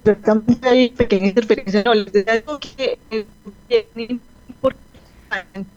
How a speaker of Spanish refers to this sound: Bueno, Estábamos con una interferencia grande. El internet, sí.